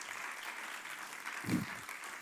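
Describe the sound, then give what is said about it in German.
An audience applauds steadily for the people who made a video, a dense crackle of many hands clapping at an even level, with a brief low thump or swell midway through and no one speaking. “Applaus für die, die das Video gemacht haben.”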